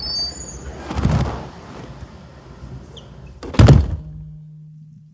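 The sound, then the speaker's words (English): Heavy-duty reinforced doors of an anechoic chamber shut with two thuds, a softer one first, then a loud, deep slam that echoes briefly before the chamber falls nearly silent, leaving only a faint low hum. “Okay, so I'm rolling, and you're going to shut the doors and leave me in here for a little while.”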